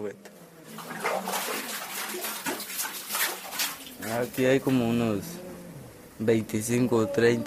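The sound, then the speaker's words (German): A light bucket is hauled up from a well, with water sloshing and splashing for a few seconds, then people start talking over it. “Sacando agua. Es ist leicht, Wasser raufzuholen. Der Eimer wiegt nicht viel.”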